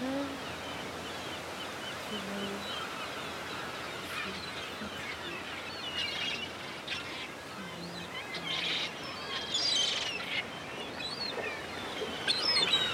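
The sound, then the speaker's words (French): A huge flock of seagulls flying together in large sweeping movements under a blue sky calls over a steady wash of ambient noise, with scattered overlapping cries rising and falling, some louder, with faint surf-like hiss in the background. “Il y a énormément de mouettes.”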